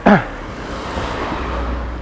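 vehicle, car passing by

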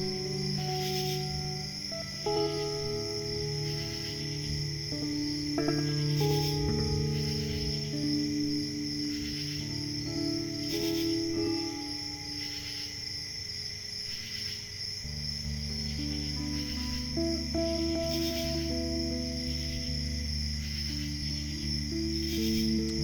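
insect, crickets chirping

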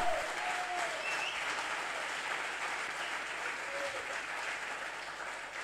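crowd, audience applauding

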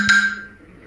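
signal or alarm, alarm going off

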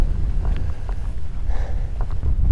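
fault, wind buffeting the microphone

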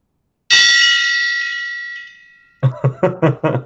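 signal or alarm, gong being struck

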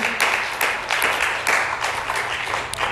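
crowd, audience clapping hands

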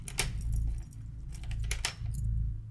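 sound effect, keys jangling

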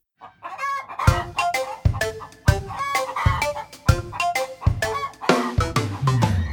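bird, hen clucking with chicks

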